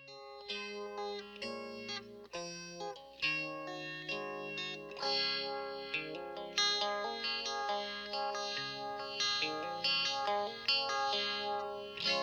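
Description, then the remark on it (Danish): An instrumental intro to a surf-tinged 1960s-style guitar pop song, with bright, chorus-drenched electric guitars strumming chords in a steady rhythm, loud and upfront, with no singing yet. “Det her, det var jo ren guitarpop, øh, som man kendte den 60'erne, bare surført.”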